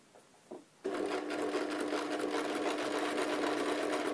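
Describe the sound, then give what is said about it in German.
A sewing machine hemming slowly inside a sleeve starts up after a brief quiet moment and runs steadily at an even, unhurried pace, its motor hum and rapid needle clatter continuing loudly to the end with no talking. “Guck, ich kann langsam säumen.”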